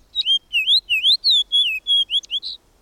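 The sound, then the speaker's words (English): A fox sparrow sings a loud, lively phrase of about eight clear whistled notes, slurring up and down in quick succession over roughly two and a half seconds, alone. “A loud, spirited song of whistled notes tells us the fox sparrow is at hand.”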